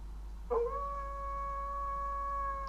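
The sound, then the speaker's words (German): A single wolf howl begins with a short rising swoop, then holds one long, steady, wavering note for a couple of seconds over a faint low hum. No voices are heard. “der Wolf.”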